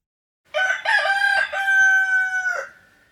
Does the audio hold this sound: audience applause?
no